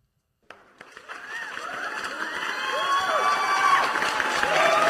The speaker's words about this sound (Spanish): El público, aplauden si ustedes no aprueban esto.